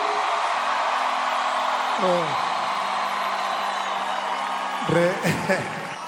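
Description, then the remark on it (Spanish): A large crowd roars and cheers steadily throughout, with a couple of sharp, rising whoops and shouts cutting through the noise partway in and again near the end. “Give it Una bulla para mi gente aquí.”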